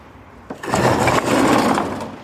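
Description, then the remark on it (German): A sliding door rolls along its track: a sharp bump, then a steady, grinding rumble for about a second and a half that fades at the end, with no talking. “Muss was nachgearbeitet werden, aber dann kann ich diese Tür wieder aufhängen und die, die hier noch hängt, ist eine Schiebetür. Sie rollt.”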